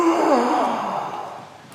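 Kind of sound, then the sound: human body sound, yawn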